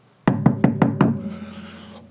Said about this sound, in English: Has anyone even tried to knock on the door?